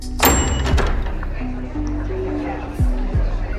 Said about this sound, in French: en poussant la porte d'un restaurant du Vieux-Nice